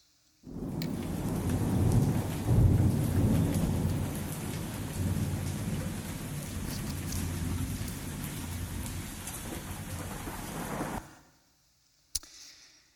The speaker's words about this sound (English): And we can only imagine that as Elihu was speaking, dark clouds started forming behind Job, and lightning started crisscrossing the sky, and the wind started picking up, and maybe Job heard something like this.